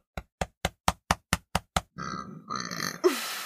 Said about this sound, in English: I feel like I have to burp again.